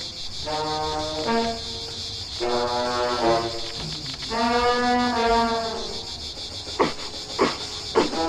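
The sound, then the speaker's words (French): Creaking shoes give three drawn-out, groaning squeaks with a wavering pitch, followed by a few sharp clicks, all over a steady background hiss. “Oh, voilà les chaussures qui grincent. Oui, oui, je les entends.”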